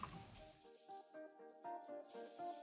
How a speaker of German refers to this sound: Es ist natürlich der wunderschöne blaue Eisvogel.